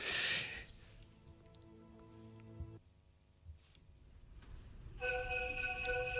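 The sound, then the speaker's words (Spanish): Orchestral music from a symphonic scherzo with soft sustained tones, then small bells ring in near the end, bright, high and shimmering over the orchestra, noticeably louder than what came before. “Campanillas, esto es lo que yo quería.”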